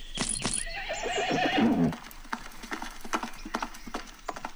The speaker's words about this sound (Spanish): El caballero negro espoleó su caballo.